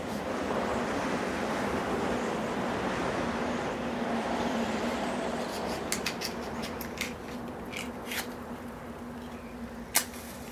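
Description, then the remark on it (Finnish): An autumn storm wind, on 9 November 1958 at 12:30, roars steadily and loudly throughout, a dense rushing noise with a low hum beneath, while scattered sharp clicks and rattles break through in the second half. No one speaks. “Syysmyrsky ryskää ja tuulee.”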